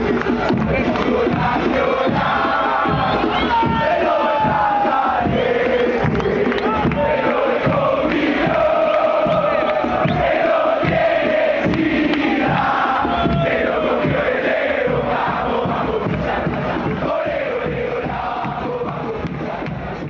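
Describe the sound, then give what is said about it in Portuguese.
A large crowd of Argentine football fans chants together, loud and unbroken for about twenty seconds, the sung melody rising and falling over a dense wash of crowd noise; the chant is a homophobic taunt aimed at the rival club nicknamed Lobo. “Mas vou dar alguns exemplos para você ver o que está acontecendo no futebol e depois vou falar se mudou alguma coisa.”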